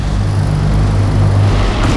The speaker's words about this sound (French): Bon alors, les poids lourds